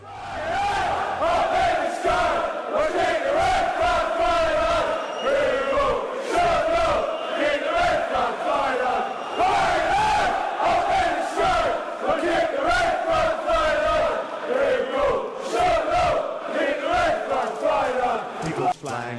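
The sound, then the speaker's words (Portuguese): A large crowd of Sunderland football supporters sings a terrace chant in unison, asking the team to fly high, loud, the mass of voices sustained and rhythmic with rough, shouted edges throughout. “A próxima música, a música 10 do Som das Torcidas, chama-se Flying High. A torcida do Sunderland pede que o time voe alto”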